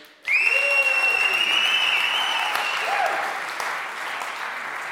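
An audience bursts into applause to vote for a contestant's painting, a dense, steady wash of clapping that starts abruptly and holds for several seconds before easing slightly, with a few high whistles and cheers riding on top.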